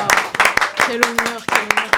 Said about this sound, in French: Bien entendu, sous un tonnerre d'applaudissements.